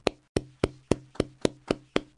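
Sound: hand clapping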